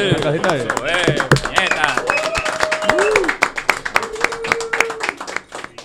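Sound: clapping applause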